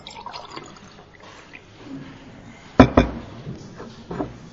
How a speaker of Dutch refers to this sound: Vindt u het goed als ik nog even een slokje water neem?